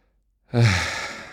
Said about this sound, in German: Und das Einatmen muss dazu führen, dass die Hand sich wegbewegt, weil der Bauch sich ausstreckt. Also da ganz bewusst in den Bauch zu atmen, tief einatmen und richtig die Erfahrung machen, wie der Bauch sich richtig weit ausdehnt